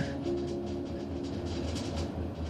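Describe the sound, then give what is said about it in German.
A steam locomotive train slowly gets under way and rumbles steadily along the tracks with a dense low drone and faint rhythmic clatter, continuous, with no voices over it. “Nachdem du Platz genommen hast, dauert es gar nicht lange und du hörst wieder das Tuten der Dampflok, während sie sich langsam in Bewegung setzt.”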